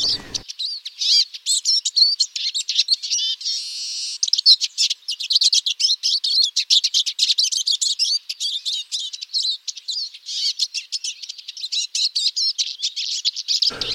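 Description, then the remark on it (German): A Eurasian siskin sings a fast, continuous twittering song mixed with squeaky, wheezy calls, fairly loud, running without pause for the full length with no other sounds. “Und auch eine eigentümliche Stimme, man hört sie sofort.”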